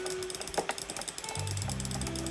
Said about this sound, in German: Und jetzt Butterfly. So schnell du kannst Butterfly. Mit beiden Fingern, mit beiden Fingern. Versuch mit beiden Fingern so schnell zu klicken, wie du kannst.